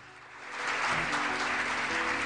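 Audience applause, a dense and steady wash of clapping that swells in the first half-second and then holds loud and even, with faint tonal hum underneath.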